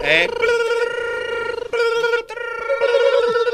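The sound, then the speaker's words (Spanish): A sustained, steady mid-pitched tone with bright overtones, broken by a brief gap, sounding like voices imitating ringing telephones rather than a real bell: a phone-ringing effect made on the Radio Poder radio show. “Ahí están sonando los teléfonos como locos.”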